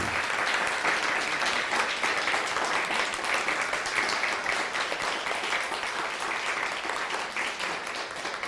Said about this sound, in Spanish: Un fuerte aplauso. Bravo, Baruch Hashem.